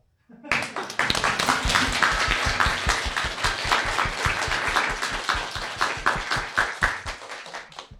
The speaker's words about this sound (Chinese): 我们用掌声来开启今天的活动吧，行不行